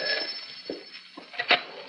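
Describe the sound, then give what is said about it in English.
A telephone bell rings with a steady, high, buzzing trill that runs through the whole moment, moderately quiet, with a few soft knocks and bumps underneath and no one speaking. “I didn't expect you to call. Oh, you should. Take your hand off the phone.”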